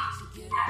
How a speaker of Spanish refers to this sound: Uy, no sé si se escucha, está mi perro ladrando. Se está escuchando un poco, pero bueno, no pasa nada.